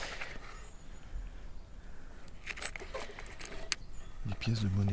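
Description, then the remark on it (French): Coins from Eastern European countries jingle and clink together in a short burst of bright metallic rattling, moderately loud, with a voice starting at the very end. “Et dedans il y a des pièces qui viennent des pays de l'Est.”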